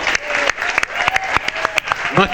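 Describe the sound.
Audience applause, called for Rob Bowman, Duchovny and Gillian: a steady, dense crackle of many hands clapping at a lively, even pace for the whole stretch, with a voice faintly audible beneath it near the end.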